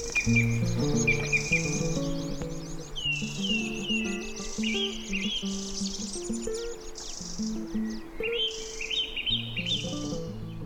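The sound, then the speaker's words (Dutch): A lively chorus of birdsong in spring, in May, with many overlapping chirps, trills and whistles, backed by a low tonal music bed throughout, steady and fairly loud. “In mei leggen alle vogels. En dat merk je ook wel. Daar is het Songfestival een aanfluiting bij.”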